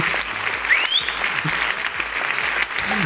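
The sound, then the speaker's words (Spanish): A crowd applauds loudly and steadily, dense clapping filling the whole stretch, with a few whistles and cheers rising above it. “La gente anima”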